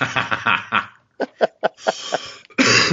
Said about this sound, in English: I would have laughed hard, but I'm on the verge of coughing.